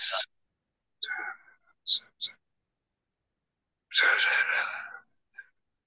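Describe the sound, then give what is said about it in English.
A voice mimics eerie whispering noises heard at night: several short, breathy, hissing bursts separated by pauses, then a longer drawn-out whisper and a final soft click-like puff. “so what started to happen at night time as well is sometimes I couldn't get to sleep because there'd be like whispering noises.”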